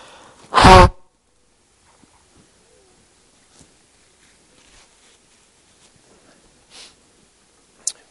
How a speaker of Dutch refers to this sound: Ik laat het daar even bij. even mijn neus snuiten.